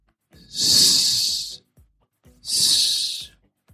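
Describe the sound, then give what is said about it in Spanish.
A voice makes two long, steady hissing 'sss' sounds, the S sound pronounced like a snake, each lasting about a second with a short pause between them, fairly loud. “En segundo lugar, al pronunciar ese último sonido mudo, lo más natural es continuar con otro sonido mudo, el sonido de la S, cuando se pronuncia como una serpiente.”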